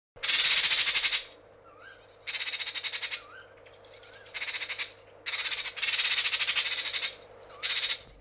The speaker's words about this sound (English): the magpie is well, just a continuation of the same, but the squawking in the intro this time is louder in the stereo mix.